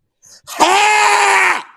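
A man lets out a single loud, sustained shout of joy lasting about a second, preceded by a brief short breathy sound and with no talking.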